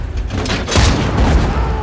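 Loud, dense .30 caliber machine-gun fire rattles continuously, with a heavy cannon-like blast bursting in near the middle over the ongoing chatter of shots, intense throughout.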